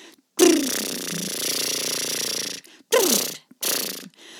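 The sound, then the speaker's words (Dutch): A voice does buzzing lip trills, a vocal exercise for controlling breath flow with the diaphragm: one long sustained rolling flutter with a sliding pitch, then two shorter bursts after brief pauses, fairly loud with a rattling, motor-like texture. “Je lippen trillen dus, maar eigenlijk beheers je deze trilling met je middenrif.”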